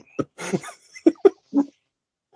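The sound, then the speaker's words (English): A dog barks several times in quick, uneven, sharp bursts, with brief pauses between the yaps and no talking over them. “dog hates M Night Shyamalan”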